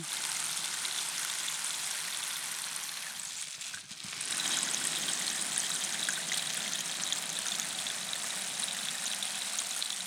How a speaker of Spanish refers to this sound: Este es un palo de lluvia labrado en cedro y con piedras de, cuarzo. Entonces mm. tiene un, sonido muy... Como agua corriendo.